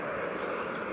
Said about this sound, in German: Was ihr jetzt hört, ist ein Industriezug.